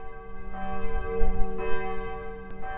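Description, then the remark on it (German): Church bells of the St. Moritz church in Taucher ring out steadily, as they do at 7, 12 and 18 o'clock, their rich overlapping tones sustaining and blending into a continuous, reverberant peal with no voices present. “Um 7 Uhr, um 12 Uhr und um 18 Uhr läuten in Taucher die Glocken der St. Moritz-Kirche.”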